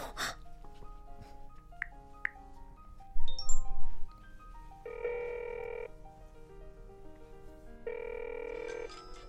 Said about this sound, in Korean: 지금 전화벨 저 노숙자 아저씨 테이블에서 울리는 거 맞지? 벨소리가 같은가 보지.